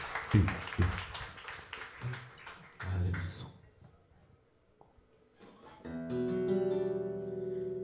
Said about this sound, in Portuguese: Dê mais uma salva de palmas a Jesus. Amém? Glória a Deus.